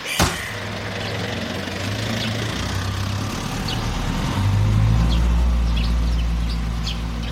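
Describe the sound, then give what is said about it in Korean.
A sharp click, then a car engine hums low and steady before revving louder midway as the vehicle pulls away, setting off first, with faint birds chirping above the rumble. No one speaks. “아이, 그럼 저희는 먼저 출발하겠습니다.”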